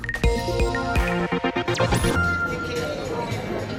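Busy pub or restaurant ambience: clinking glasses and cutlery clatter ring out over a steady murmur of indistinct chatter, with a few sharp knocks and clinks.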